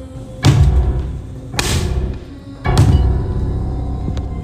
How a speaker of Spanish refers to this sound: Los golpes que parecían provenir de algo que golpeaba la parte de arriba de la ranfla eran cada vez más rápidos y más fuertes.